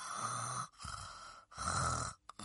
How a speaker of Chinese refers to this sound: 懒惰猴把耳朵捂了起来，闭上了两只黑溜溜的小眼睛，嘴里还发出呼噜噜的鼾声。